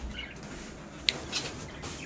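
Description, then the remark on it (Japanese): A pet bird in its birdcage gives two brief, high chirps close together, fairly soft against a quiet background with no one talking. “いつもねこの鳥かごの横でね鳥ちゃんを眺めながらねご飯を食べてるんですけど”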